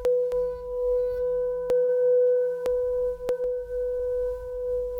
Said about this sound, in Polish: Uderzam, wzbudzam i zaczynam pocierać wokół misy.